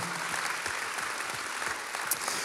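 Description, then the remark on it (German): An audience applauds for ICF St. Gallen, a dense, steady wash of many hands clapping at once, sustained and fairly loud throughout with no voices standing out. “Gallen an der Stelle einfach Danke sagen und lasst ihnen einen Applaus geben.”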